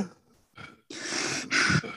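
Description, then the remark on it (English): A person imitates a man's heavy breathing while sitting in a car: a few faint breaths, then two long, loud, rasping breaths in quick succession, with no talking. “He would he had a really uh heavy breathing because every time I'd be in a car with him sitting down, he would be like,”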